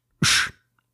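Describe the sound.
A single loud burst of breathy noise made with a person's mouth, imitating a punch impact in a fight, with a brief low thump at the start and then quiet.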